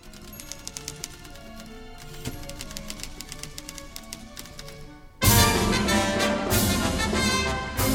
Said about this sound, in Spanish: A la orquesta le puso máquinas de escribir.